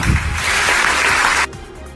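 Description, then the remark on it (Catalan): A crowd bursts into loud, steady applause in tribute to David Marca, former head technician of RAC and RAC 105, a dense wash of clapping hands that holds for about a second and a half before cutting off abruptly into quiet. “Va ser cap tècnic de rac i RAC 105 durant 15 anys i tot i que sé que el molestaria, crec que avui és el moment idoni de demanar-vos un merescut aplaudiment pel meu amic David Marca.”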